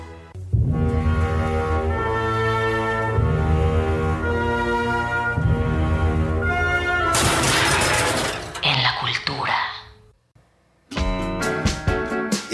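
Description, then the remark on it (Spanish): Stately, elegant music plays loudly with sustained tones, then breaks into a sudden noisy crash-like burst that fades into a short silence before the music returns. “es la música elegante para un oso polar nalgón.”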